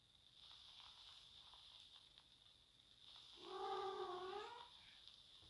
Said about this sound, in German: Meine Katze gurt mal wieder rum.